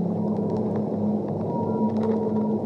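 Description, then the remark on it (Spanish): Low, sustained whale calls hum steadily throughout, with faint high-pitched clicks and chirps scattered above them, like sounds carrying through deep water. No one speaks. “Comienzo a subir lentamente a la superficie ballena se va alejando y los delfines me acompañan”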